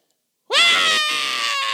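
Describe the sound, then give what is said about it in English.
After a brief silence, a voice imitates a girl's high-pitched scream of excitement in the morning: a sudden, loud, shrill note that rises sharply and is held steadily to the end, with slight wavering and no other sound. “Why girls scream when something good happens?”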